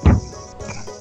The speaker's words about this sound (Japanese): 一応2019年9月8日えー、後ろでまだセミが鳴いてます